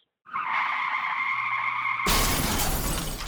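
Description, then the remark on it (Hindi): A car's tires let out a long, high screech that holds steady for about two seconds, then breaks abruptly into a loud crash of impact and shattering glass that rings on to the end. “We hope this never happens to you. If it does, you need a professional to take care of your car.”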